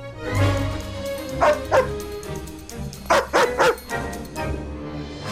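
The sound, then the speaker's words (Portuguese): A big dog, Clifford the big red dog from the family film, barks loudly in a few short clusters, two quick woofs, then three rapid ones, then a last bark, mixed with yippy, whiny notes. “É um cão vermelho, muito grande, óbvio, muito meigo, muito bonzinho e que adora a sua dona.”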